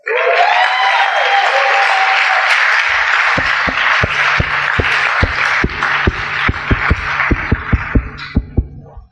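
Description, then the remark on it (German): Loud, sustained applause from an audience fills the whole clip, and partway through a steady, deep thumping beat joins in underneath the clapping, with no one speaking. “Fetten Applaus.”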